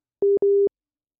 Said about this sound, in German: Woher kommt der Piepston?